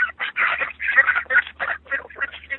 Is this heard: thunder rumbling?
no